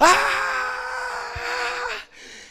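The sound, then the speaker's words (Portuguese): A man lets out a long, anguished wailing scream, loud, sustained for about two seconds before breaking off into a brief breathy trailing cry. “Até que em algum momento, as Escrituras falam que José, ele vai e se revela para os irmãos, mas ele começa a gritar de uma tal forma:”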